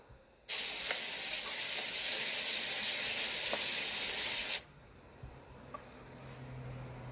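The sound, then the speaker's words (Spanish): Showers burst on with a loud, steady hiss of spraying boiling-hot water, running for about four seconds, then cut off abruptly, leaving a faint low rumble. “De las duchas, de repente, sale agua hirviendo.”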